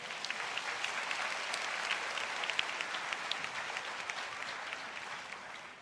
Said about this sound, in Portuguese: Give yourselves a hand, you did a good job. Vocês fizeram muito bem, aplaudam-se a si mesmos.